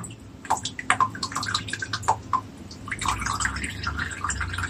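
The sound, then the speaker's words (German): Water drips and trickles off a bowl just lifted out after soaking in water, a scatter of irregular splashes and patters that turn into a steadier running trickle toward the end, with no one speaking. “nimmt man also die Schale wieder raus. Ich mache das jetzt hier gleich mit. So. Tun jetzt mal so, als ob eine halbe Stunde vorbei gewesen wäre. Lässt das noch ein bisschen abtropfen.”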